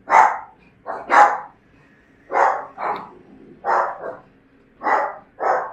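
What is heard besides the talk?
small dogs barking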